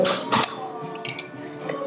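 An ice cube drops into a glass with a bright, ringing clink, followed by a couple of smaller tinkling knocks that fade over two seconds.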